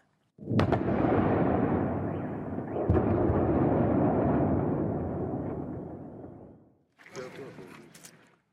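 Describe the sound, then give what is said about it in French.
A powerful explosion from bombardment in Kyiv, Ukraine, recorded around 5 a.m., erupts with a sharp onset and a long rumbling roar that slowly fades over several seconds, followed by a second burst of noise. “De fortes explosions ont retenti à Kiev, la capitale ukrainienne.”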